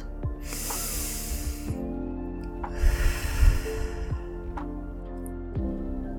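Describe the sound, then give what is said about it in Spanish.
A slow, deep breath, one long airy inhale followed by a fuller exhale, taken before moving on to the next round of an exercise, over a steady low humming drone. “una respiración profunda antes de pasar a la próxima vuelta.”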